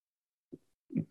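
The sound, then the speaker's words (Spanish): A single quiet sneeze: a soft intake-like burst, then a brief pause and a sharper, louder expulsion, muffled, with no talking around it. “Salud.”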